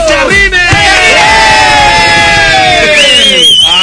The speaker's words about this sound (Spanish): No, pues es una grata visita. Ahí está el grito ya.